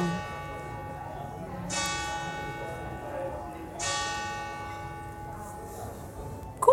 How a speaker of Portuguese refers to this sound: Nove horas. Nove horas, hein, galera? é, vai bater nove vezes. Vai, espera, tudo. Aí, gente, você sabe que você está na Itália quando você começa a escutar sino. A igreja não falta, né?